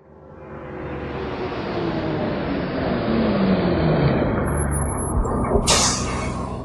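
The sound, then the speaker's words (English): A bus engine rumbles low and steady, swelling slightly in loudness, then a sharp hiss of air brakes bursts out near the end. No one speaks. “I'll go on a bus to Grandma and Grandpa's.”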